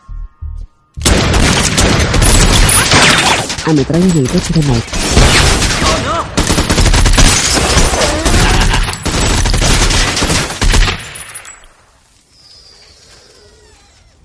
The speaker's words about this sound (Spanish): Barre la apunta y Mike le dispara, mientras Christie entra en el restaurante.